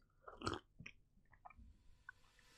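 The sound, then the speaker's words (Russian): A loud gulp of tea, one wet swallow followed by a few small mouth clicks and smacks, with no one talking. “Я мощно делаю глоток просто в этот момент чая.”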